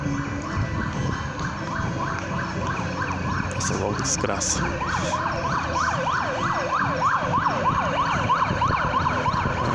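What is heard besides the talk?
ambulance siren passing outside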